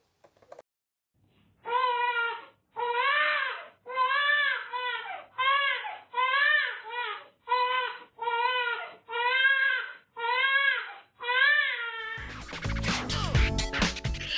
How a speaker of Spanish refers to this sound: Bueno, te cuento que cuando somos bebés nos expresamos por, por sobre todo a través del llanto, que es la respuesta inmediata a la necesidad